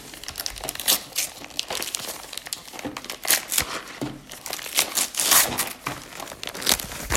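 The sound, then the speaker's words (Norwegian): Gift-wrapping paper crinkles and rustles continuously as a gift package of chewing gum is unwrapped, with bright, irregular crackling bursts throughout and no talking. “Her har du en presang siden du er i eh, karantene og at du ikke hadde bursdag.”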